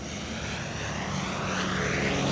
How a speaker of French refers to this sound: Survolant la jungle, un bombardier américain rugit juste au-dessus des arbres en direction d'une longue bande de sable le long de la mer. Les oiseaux se dispersent, les singes hurlent.